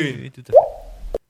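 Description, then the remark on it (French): A person imitates a water drop with their mouth: a brief voiced sound, then a single resonant plop that bends in pitch, trails off, and ends with a short pop. “Ah, la goutte d'eau.”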